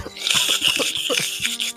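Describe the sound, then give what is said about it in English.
A man slurps a drink through a straw, a steady hissy sucking sound broken by wet, bubbly gurgles for a couple of seconds, fairly loud throughout. “we just get we just hear him slurping on the straw.”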